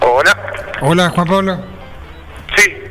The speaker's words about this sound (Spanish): se escucha con eco. Con eco.